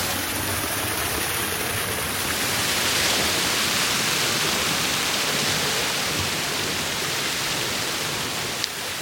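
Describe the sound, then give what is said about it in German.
Warm mine water, coming up at about 30 degrees and passed through heat exchangers that heat the mine buildings, pours steadily out of slits in a wall, a dense, continuous rushing splash like a small waterfall, loud throughout with no talking. “Also gerade im Sommer, wenn es nicht ganz so heiß ist, kann man hier jede Menge Leute sehen, die halt vor diesen Wasserfällen, ich nenne es jetzt mal Wasserfälle, äh, posieren und Fotos machen.”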